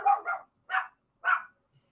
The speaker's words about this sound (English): Well, Dogsgate has found you and is barking.